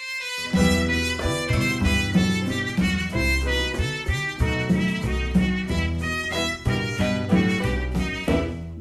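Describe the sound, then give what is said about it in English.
Cuban band music plays steadily, with a full ensemble sound, a pulsing bass line and a rhythmic percussive drive, and no talking over it. “And their music sounds like this.”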